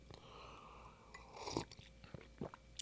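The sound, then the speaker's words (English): A quiet sip of hot coffee, with a soft slurp followed by a couple of small wet mouth and swallowing sounds. Nobody speaks. “Hang on a second, coffee sip.”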